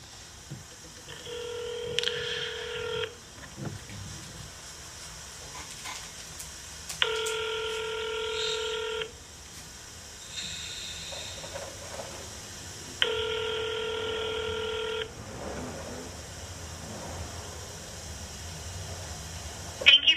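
Electronic touch-tone telephone tones of a phone number being dialed sound in three sustained, evenly spaced bursts of about two seconds each. Moderately loud, separated by quiet gaps with faint background hiss.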